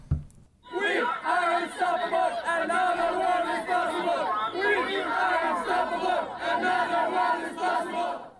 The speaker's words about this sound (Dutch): is het even goed om naar een fragment te luisteren om een beetje een indruk te, te krijgen van dat protest. En dan horen we ook wat er allemaal gebeurd is gisteren in Amsterdam.